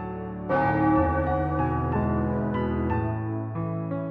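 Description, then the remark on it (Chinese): A distant town clock bell strikes twelve times at midnight at a steady pace, each deep, resonant chime ringing on and overlapping the next, with no voices present. “镇上大钟的声音远远传过来，一连响了十二下。”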